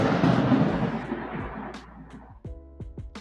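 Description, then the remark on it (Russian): A deep, rolling rumble of thunder swells at the start and slowly fades over a couple of seconds, and then a person begins talking. “У тебя гроза началась.”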